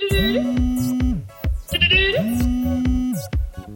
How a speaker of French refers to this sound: Au bout de 6h30, la sonnerie de son iPhone XR retentit.